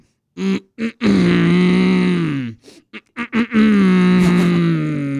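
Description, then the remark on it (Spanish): A person imitates a cow, giving two long, low, droning moos with a few short grunting bursts between them. The voiced sound is loud and steady, with rich harmonics. “No, yo sí la puedo hacer, mira, la, hago de vaca.”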